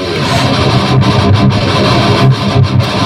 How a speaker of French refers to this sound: En fait, c'est un générateur de bruit blanc. Ça envoie du bois quand même.